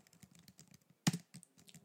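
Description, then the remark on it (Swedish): Rapid, uneven clicking of keys on a computer keyboard, a steady patter of light taps with one sharper, louder keystroke midway. No voices. “Den gråa kaninen fortsätter att skriva”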